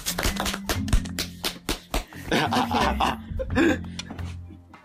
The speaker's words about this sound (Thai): ครับปรบมือครับ